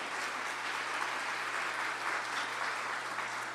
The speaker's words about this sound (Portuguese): Vamos dar mais um aplauso para elas? Que delícia!